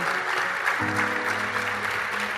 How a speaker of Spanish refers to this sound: Quiero pedirles un fuerte aplauso para nuestros invitados de esta noche.